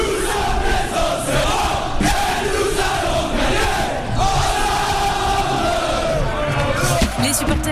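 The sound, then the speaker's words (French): A large stadium crowd of Auxerre football supporters chants loudly and continuously, voices massed together in a dense, roaring wall of sound with rhythmic surges throughout. “au auxerrois qu'on veut entendre cet après-midi à l'Abbé des Champs pour le choc de cette 24e journée de Ligue 2.”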